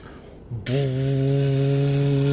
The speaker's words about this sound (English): As they as they move forward, one of the dwarves at the back, like the one who's just in front of you, like pulls out what appears to be like a big like ram's horn or some sort of animal uh, horn, okay. and he goes.